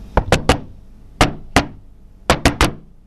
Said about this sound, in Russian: Что это такое? Это кость стучит одна о другую. Каждая кость собирается в свой скелет. Это вот шум.